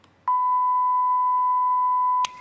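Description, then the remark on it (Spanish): A single steady censor bleep, a pure high tone held for about two seconds at strong volume, starting and stopping abruptly with clicks, with no talk over it. “Efectivamente, pitido.”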